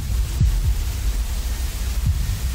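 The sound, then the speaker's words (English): A deep heartbeat sound effect: a low double thump, a pause, then another thump, all over a steady dark hum and hiss, with no one talking. “BPM going through the roof?”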